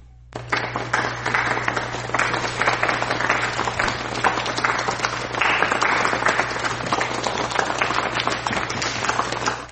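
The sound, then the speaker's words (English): A golf clap: steady, sustained clapping that runs nearly ten seconds at an even level, with a faint low hum underneath and no talking. “I'll give the golf clap to the one person who got it.”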